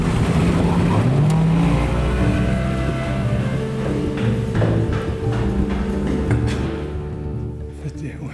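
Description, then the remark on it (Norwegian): A boat engine turns over and revs up, a loud, throbbing low drone whose pitch climbs early on, then settles into a steady rumble that eases slightly near the end. “Jeg tror vi må starte opp så før vi lider samme skjebne.”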